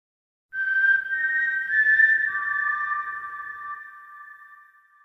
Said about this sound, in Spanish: Si no lo habéis hecho aún, aprovechad ahora mientras ponemos nuestra cabecera, el tradicional silbido del sinsajo.